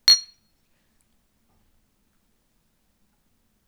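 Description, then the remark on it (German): A single bright, sharp clink of glasses touching in a toast, ringing briefly before fading into silence. “Prost.”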